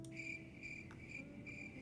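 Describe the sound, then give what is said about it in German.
Crickets chirping in a steady, rhythmic pattern of short trilling bursts about every half second, fairly quiet, with only a soft low background hum and no voices. “Nein, nein, nicht mal Grillen haben applaudiert, ganz ehrlich.”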